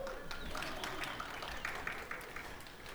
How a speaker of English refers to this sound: I'm really excited to have my mom here for two weeks. And um, as many of you know, my, yeah, you can, you can applaud.